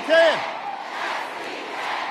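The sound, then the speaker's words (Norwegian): A large crowd in Virginia shouts in unison, a loud collective chant of Barack Obama's well-known old slogan as he comes on stage, rising at the start and then continuing as a steady roar of many voices. “Mens publikum ropte hans kjente, gamle slagord,”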